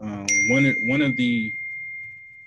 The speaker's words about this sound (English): I mean, I don't know if y'all can hear my computer going off. I'm sorry about that.